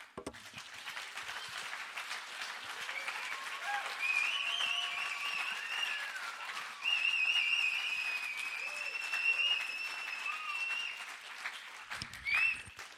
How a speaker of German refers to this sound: Jetzt geben wir Gott Applaus für das T-Shirt.